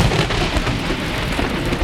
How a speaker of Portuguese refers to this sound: Tá uma chuva desgraçada nessa Belo Horizonte. Então talvez você que nos escuta vai ouvir um chiadinho ao fundo na minha fala. Não é problema do microfone, tá? Chama natureza selvagem. Raios e trovões!